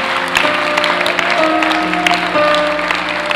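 A church audience claps steadily and densely for the whole few seconds, a loud continuous patter of many hands, with faint sustained tones humming underneath.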